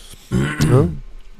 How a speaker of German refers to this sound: sorry, sorry für das viele Räuspern gerade. Äh, es liegt nicht, weil ich irgendwie was kommentieren will, sondern ich habe lediglich Heuschnupfen.